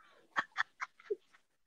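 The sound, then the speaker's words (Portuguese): Someone imitates a pigeon with a quick run of five or six short, clipped cooing calls, fairly loud at first, then trailing off softer. “Eu achei eu falei... a Lana uma pombo. Eu sei se sentiu que ela era uma pombo. Eu, quase ouvi ela falando.”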